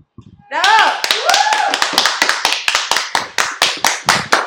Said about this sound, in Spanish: Y pues pues bueno, un saludo a todos nuestros compañeros y amigos que nos están viendo esta noche y por favor disfrutemos con un aplauso.